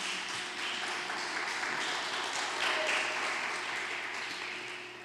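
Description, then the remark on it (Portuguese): A church audience at a worship service applauds God steadily, dense overlapping claps swelling slightly midway before tapering off toward the end. “Queria que você aplaudisse a Deus, né, também, né, por essa palavra, né?”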